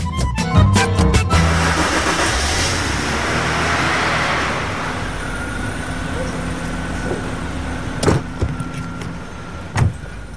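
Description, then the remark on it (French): Steady car engine rumble and road noise in busy city traffic in the 6th arrondissement of Paris, with a few sharp knocks and clicks near the end, heard from inside the car. “on est passé le prendre à la sortie de son bureau dans le 6e arrondissement de Paris et on est monté dans sa voiture.”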